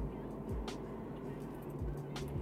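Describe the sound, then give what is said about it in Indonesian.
A heavy vehicle rumbles past on the road, its deep engine drone steady and loud with a few dipping pitch shifts, while faint voices murmur in the background. “eh buset ketemu mobil gede lagi di sini itu kan yang tadi di jalan tol tuh yang itu tuh”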